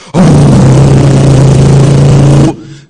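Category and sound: vehicle, racing car engine revving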